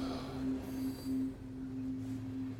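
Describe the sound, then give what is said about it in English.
A train rolls steadily along the rails through a tunnel, a continuous low rumble with a sustained mechanical hum, moderately loud and even, with no voices. “I don't necessarily conduct the train myself.”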